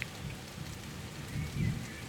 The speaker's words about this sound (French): la pluie fait énormément de bien à la nature. Et on entend l'orage. C'est une ambiance euh, un petit peu particulière aujourd'hui dans ce podcast avec l'orage et la pluie